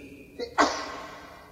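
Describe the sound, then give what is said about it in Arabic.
A single sharp sneeze, with a brief catch of breath just before the explosive burst, which then fades quickly into quiet room noise. “يرحمك الله”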